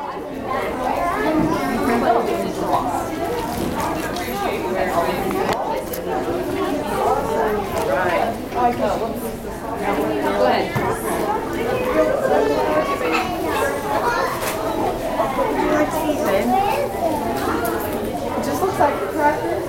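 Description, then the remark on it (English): Busy ambience at a library branch, with overlapping chatter from many people, with children's voices and play mixed in, holding a steady moderate level throughout with no single voice standing out. “We leave you with sounds from one of our locations. It's your audio minute we call Library Zen.”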